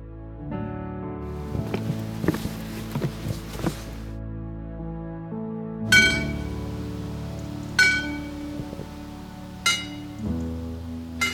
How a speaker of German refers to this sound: Und diese Kirchenglocken, das ist die Kirche in Sorge.